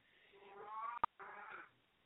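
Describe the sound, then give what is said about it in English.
A cat vocalizes in two drawn-out, wavering yowls, split by a brief sharp click, with no talking. “my cat doesn't like this guy either.”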